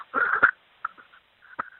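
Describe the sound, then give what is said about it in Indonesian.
A voice imitates labored, gasping breaths like a dying person: a strained, raspy rattle followed by two short, choked gasps with pauses between, fairly loud. “Di perjalanan itu suara gue tuh udah gini,”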